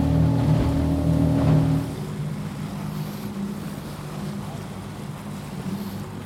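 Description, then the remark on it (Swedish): A relatively small petrol-powered motorboat engine runs near Dalarö, Sweden, loud with a steady droning hum for a couple of seconds, then settles into a lower, rougher rumble mixed with water and wind noise. “Tyvärr går min båt på bensin då, då som jag har här, men eh, det kanske kan bli ändring på det.”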